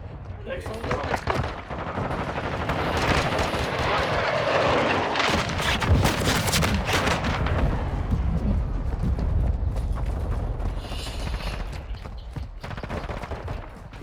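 Dense, rapid video game gunfire crackles almost nonstop, with sharp bursts and booming impacts layered over a constant roar of battle noise, staying loud throughout.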